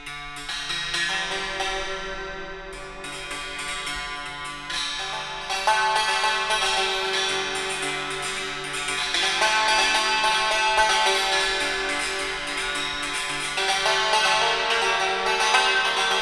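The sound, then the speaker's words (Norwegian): A santoor struck with hammer sticks in quick, shimmering runs of metallic notes, slightly out of tune, ringing steadily with no talking over it. “slå opp eh, SANTOOR”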